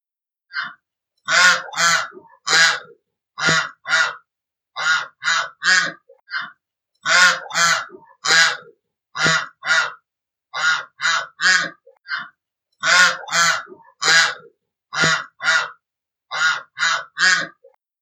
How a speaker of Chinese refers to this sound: 青蛙呱呱叫完了，小鸭子马上接着嘎嘎叫了起来。听，这是小鸭子在嘎嘎叫。